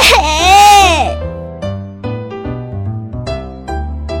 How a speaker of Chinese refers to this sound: 卧室里，十一个孩子坐在十一张小床上，一个一个哭得满脸是泪。